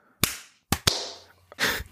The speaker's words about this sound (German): Ich glaube, am einfachsten wär's, dann sieht man es direkt in der Audiospur, wenn wir, klatschen wir alle drei vor dem Mikrofon mal so in die Hände. Ja. okay. Eins, zwei, drei.